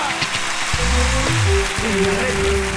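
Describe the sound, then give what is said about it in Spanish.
Steady crowd applause fills the whole stretch, loud and unbroken, with sustained musical tones and voice-like sliding pitches riding over the clapping. “Fuerte el aplauso para María.”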